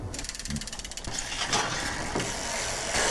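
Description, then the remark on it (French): A bicycle freewheel ticks in a fast, even ratchet clatter as the rider coasts without pedalling, running steadily for a few seconds with a faint mechanical whir underneath and no voices. “Est-ce qu'il y a un truc sonore qui définirait ton rapport avec le vélo Moi, c'est un bruit mécanique, c'est le bruit de la roue libre.”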